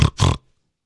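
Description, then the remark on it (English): A person imitates a pig with two quick, loud nasal snorts, followed by silence. “There you go, just like that. The pig.”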